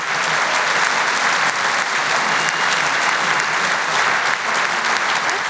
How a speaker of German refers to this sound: Jetzt kannst du dich feiern lassen. Das ist dein Applaus.